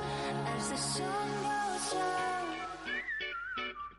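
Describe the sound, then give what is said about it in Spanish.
A short, bright jingle of Radio 4G played before a surprise phone call: a whistled melody gliding over full, steady backing music, ending with a few rising accented notes. “Cuando suena esta sintonía es porque vamos a hacer una llamada sorpresa.”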